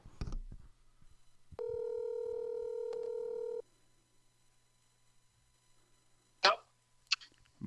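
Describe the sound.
A telephone line as a call is placed: a few quick dialing clicks, then a steady electronic ringing tone that holds for about two seconds before stopping. Faint line hiss follows, and a voice briefly starts near the end.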